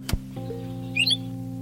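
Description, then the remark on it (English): A recording of a brief ʻŌʻū honeycreeper call, a quick cluster of high, sweet chirping notes, played back faintly over a steady low electrical hum that follows a sharp click. “And when we heard the call of the OU, we looked at each other, we asked him to stop.”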